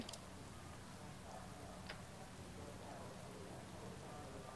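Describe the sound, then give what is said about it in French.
Steady rain in a rally racing video game hisses continuously across the whole stretch, a dense even wash with a few brief ticking drops standing out, moderately loud with no voices. “là, vous avez de la pluie, hein, donc de toute façon, voilà.”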